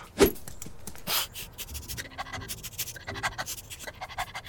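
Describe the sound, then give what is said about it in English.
A dog named Sniffy sniffs at a bookshelf while searching for its missing leash: two sharp, breathy snuffles, then a quick, steady run of soft, short sniffs, with no talking. “Go on and give the bookshelf a sniff.”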